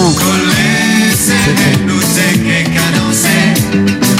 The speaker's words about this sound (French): Ah ça, on a la version qui date. Hein. Ça, Le son, ça, c'est le son. Le de... charme, de la cassette audio. C'est le son de 88.